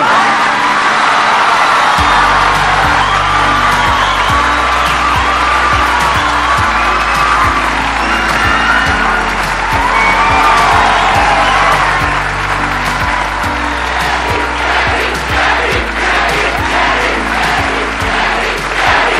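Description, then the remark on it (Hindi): A loud audience cheers, whoops and shouts continuously to welcome YouTuber CarryMinati as a guest, over a pounding, steady bass beat, with scattered claps and high excited yells rising throughout. “आज जो हमारे गेस्ट हैं वो सिर्फ इंडिया के नहीं बल्कि पूरे एशिया के नंबर वन यूट्यूबर हैं please gave energetic and welcome to carry Minati”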